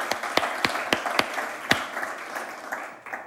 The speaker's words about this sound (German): Schön, dass ihr da seid. Der Applaus hier kommt von Herzen. Wir lieben euch.